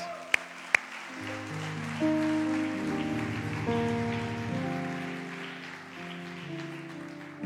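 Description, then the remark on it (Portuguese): A church audience applauds for Jesus in a dense, steady wash of clapping that holds for several seconds, with sustained keyboard chords ringing underneath and a couple of sharp clicks early on. “Aplauda Jesus.”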